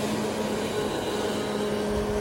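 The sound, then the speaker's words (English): A tiny speedboat driven at high speed by two children on a river, its motor droning at high revs, a steady, buzzing, raspy whine with a constant pitch that holds unbroken for the whole stretch, with no voices. “driving the tiniest little boat at such high speed.”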